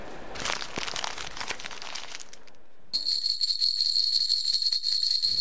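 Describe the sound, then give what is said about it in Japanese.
Crinkly wrapping of an item handed out by staff before a marathon being torn and opened for a few seconds, a burst of rustling and crunching, followed by a bright, steady high-pitched ringing tone with light rattling underneath; the item inside is a toy for soothing babies. “これがアイテムですか開けてもいいんですか”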